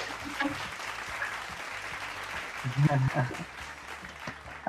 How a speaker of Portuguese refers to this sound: Meu Deus, palmas para a CEO, palmas para a CEO, gente.